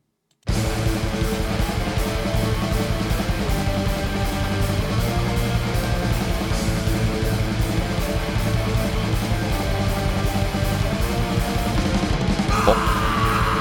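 Slow, heavily distorted grindcore-style death metal with simple riffs: a thick, low, droning guitar riff with harsh yelled vocals, loud and steady throughout after a moment of silence at the start.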